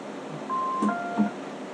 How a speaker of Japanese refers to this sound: 普通にシンプルにキーボードのポロポロをちょっと足そうかなと思いつつ試しにやってんすけど